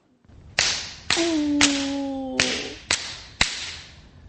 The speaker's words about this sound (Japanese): 禅上、禅の杖と書きますが、肩のところねね、あの途中でパンパンパンと叩いてもらうんですね。なかなかの強さに聞こえましたけど、ねところが、音ほどは痛くない。気持ちいいぐらい。